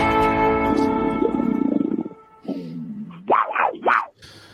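A big cat lets out a deep, rumbling roar, followed by a couple of sharp snarls that rise and fall in pitch, loud and with no voices.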